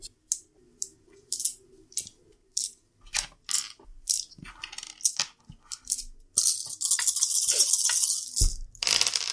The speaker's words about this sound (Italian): Quindi così mi prendo il vantaggio e ritiro gli altri dadi.